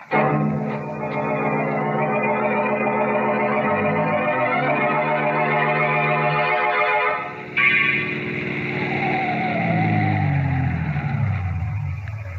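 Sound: car driving and stopping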